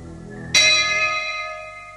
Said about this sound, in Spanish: Nuevamente se escuchó la campanilla de peregrino budista desde el jardín.